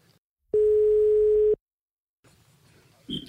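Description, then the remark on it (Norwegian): A single steady telephone dial tone sounds for about a second as a phone call is placed, a loud flat electronic hum at one pitch, then stops, followed by faint rustling and a brief noisy burst. “Men nå, nå tror kanskje vi må, må ringe til Josef for å gjør høre litt hva han mener.”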